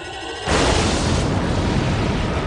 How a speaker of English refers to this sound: But this moment where you see the Enterprise and the Excelsior take turns firing their torpedoes onto the bird of prey, and then it, it just explodes. Mm-hmm. It's great. It's very satisfying